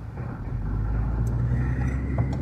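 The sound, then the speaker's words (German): Steady low rumble of a car driving to the studio, heard from inside the cabin, with constant engine and road drone and a few faint ticks and clicks over it. “Ja, äh, ich bin jetzt gerade mal wieder unterwegs hier im Auto zum Studio.”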